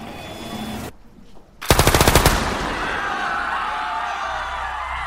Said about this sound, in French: Un seul coup de feu déchire l'air un écho sinistre de violence inouïe.